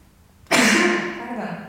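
A single sneeze bursts out after a short quiet pause, sharp and loud at the onset, then trails off into a breathy, noisy exhale.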